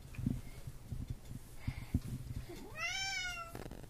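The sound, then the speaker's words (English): A single drawn-out cat meow rises and falls near the end, preceded by soft shuffling and bumping noises; no one speaks. “And that's a cat.”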